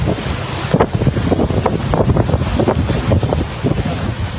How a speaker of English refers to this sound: A powerful wave sends a huge log crashing into the beach stairway. The water rushes up the path, forcing everyone to scramble out of the way.